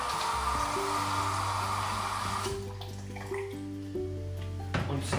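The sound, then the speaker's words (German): Water pours steadily into a second cup holding frozen fruit for a few seconds, a hissing rush whose ringing tone rises as the cup fills, then tapers off into quieter trickles. “Dann halt, dann halt etwas, ähm, was dann halt etwas Wasser dazu.”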